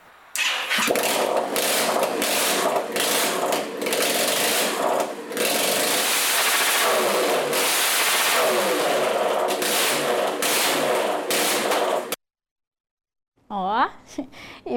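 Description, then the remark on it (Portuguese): A student team's competition racing car engine at UFG roars loudly for about twelve seconds, revving and surging with rising and falling pitch, then cuts off abruptly, followed by a brief voice. “Enfim, vocês estão afim de ouvir o ronco do nosso motor?”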